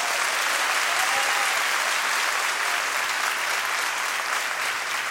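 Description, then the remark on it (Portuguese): An audience applauds the Lord steadily for several seconds, a dense, even wash of many hands clapping at constant loudness with no pauses and no one speaking over it. “Dá uma salva de palmas ao Senhor, gente.”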